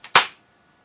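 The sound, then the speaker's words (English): A sharp, loud hand slap swatting a mosquito, preceded by a faint softer tap, then quickly fading into silence. No one speaks. “There was a mosquito. I had to, I had to kill it.”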